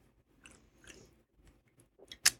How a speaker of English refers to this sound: Okay, I'm gonna take a sip of my twisted tea